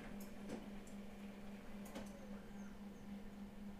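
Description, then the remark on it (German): A printer hums steadily at a low pitch while sharp clicks and brief mechanical ticks break in every so often as it starts up on its own, with nobody speaking. “Wer hat dir jetzt gesagt, dass du angehen sollst, Drucker?”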